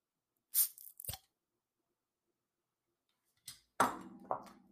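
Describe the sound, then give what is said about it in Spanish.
A Modelo Especial beer being opened: a sharp crack with a brief hiss of fizz, then after a pause a few crunchy, crinkling handling noises. No one speaks. “Efectos especiales de mi cerveza modelo.”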